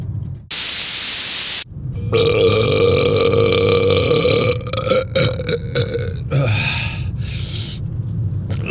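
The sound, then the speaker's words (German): A brief hiss of noise gives way to a long, loud, drawn-out burp from a person who is full after eating, rumbling and wavering for several seconds before breaking into breathy, sputtering bursts at the end. “So klingt es, wenn ich satt bin.”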